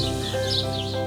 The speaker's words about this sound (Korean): 여섯째 날 이른 아침 숲속에서는 큰 소리가 울렸습니다. 가까운 나무에 앉아 있던 새들은 짹짹거리며 공중으로 날아올라갔어요.